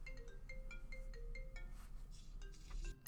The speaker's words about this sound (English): i'm sorry i'm taking a phone call